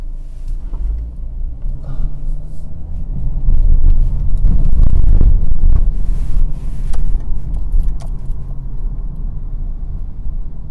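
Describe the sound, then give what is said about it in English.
A heavy truck rumbles past, its deep low growl swelling to a peak midway and then fading slowly as it moves off, with no voices. “Is this truck going to do it?”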